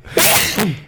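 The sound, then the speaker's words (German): A single sharp, loud sneeze, with a burst of breathy noise followed by a quick second exhale that trails off. “Gesundheit.”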